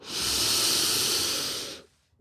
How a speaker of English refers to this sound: Breathing out and letting it flow.